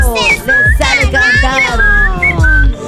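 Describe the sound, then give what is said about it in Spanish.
A person whistles a quick, trilling birdlike melody imitating a canary, with bright warbling tones and short chirps repeated over a few seconds, fairly loud, with some faint background noise. “Canario, le sabe chiflar el canario.”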